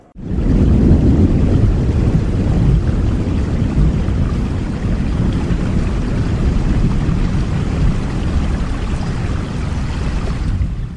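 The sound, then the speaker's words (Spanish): A steady, dense roar of heavy rain pouring down, loud and unbroken for the whole stretch, with a deep rumbling wash underneath and no voices. “Vaya jarra de agua que está cayendo.”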